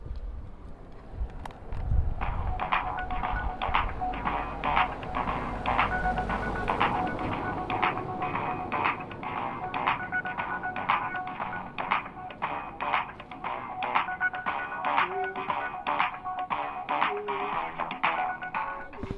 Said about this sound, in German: Also wir sitzen jetzt, nein, wir stehen jetzt hier vor der Tür am Plan 3 und schauen uns eine Hackspace-Klingel an. Und die soll eine schöne Wartemelodie spielen, wenn man sie drückt.